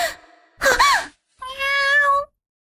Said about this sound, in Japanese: 猫もう、驚かせないでよ。っていうか、飲食店に猫